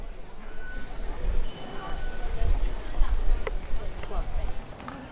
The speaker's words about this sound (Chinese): 你可以从远处听到。这个很多人推着皮箱，然后从四面八方而来，然后我也就跟人群保持一个距离，然后跟着他们移动。